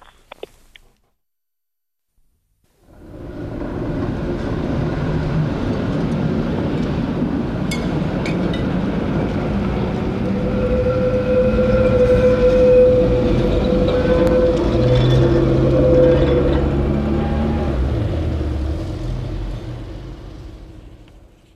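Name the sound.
tram passing by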